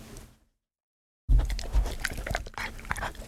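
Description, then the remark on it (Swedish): The dog Tage chews a piece of dog treat with loud, wet crunching and smacking bites, a steady irregular munching rhythm after a short silence, with no talking. “Ja, som ni hör, han mumsar glatt i sig.”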